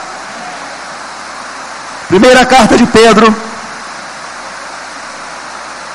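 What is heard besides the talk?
rain falling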